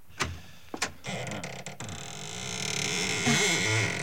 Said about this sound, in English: It doesn't sound as though that door had ever been opened. Well, a little oil on the hinges will fix that